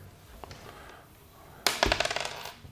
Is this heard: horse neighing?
no